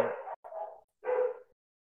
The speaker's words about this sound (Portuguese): você quer que eu pare pro cachorro parar de falar ou pode continuar, deixa o cachorro latindo.